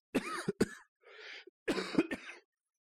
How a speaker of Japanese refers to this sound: ちょっと咳込みます。